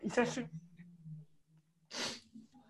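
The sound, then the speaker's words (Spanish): A forceful morning sneeze with a voiced, throaty build-up, followed a moment later by a second breathy burst, all quite loud against a quiet, faintly humming background. “Es que en las mañanas yo estornudo mucho, pastor.”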